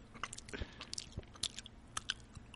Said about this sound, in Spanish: Eh, ahorita me regalaste una gomita. A ver si se escucha.